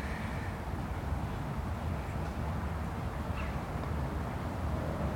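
A steady, low rumble of car traffic fills the background, a continuous wash of road noise from passing vehicles with no distinct individual cars standing out, heard while standing under a tree.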